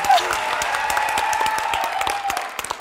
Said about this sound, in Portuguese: Aplausos eu amo.